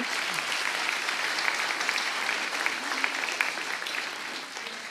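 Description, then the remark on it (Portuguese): An audience applauds the Lord loudly during a Portuguese-language sermon, many hands clapping in a dense, continuous wash that holds at an even, strong level for the whole stretch, with no voices standing out. “Vai aplaudir o Senhor, aplauda forte.”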